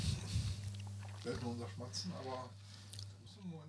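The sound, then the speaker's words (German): Quiet, wet lip smacks and mouth clicks from people tasting gin, mixed with soft appreciative hums over a steady low background drone. “Wir hört nur unser Schmatzen”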